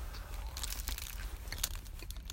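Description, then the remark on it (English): Someone eating a chicken shawarma sandwich in a parking lot in Dearborn, Michigan: soft, irregular crunches and wet chewing with a faint crinkle of wrapping, over a low steady background rumble and no talking. “So here's the sound of me eating my sandwich.”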